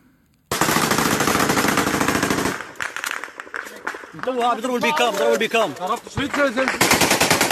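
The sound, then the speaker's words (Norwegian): Rapid bursts of Kalashnikov rifle and machine gun fire crackle loudly and continuously, break off while men shout, then resume at the end; the men fire from cover behind some cars in Nagorno-Karabakh. “Uniformene og påkledningen virker noe uryddig, men det er ikke tvil om at mennene som skyter med kalasjnikover og maskingevær i ly av noen biler, vet hva de holder på med.”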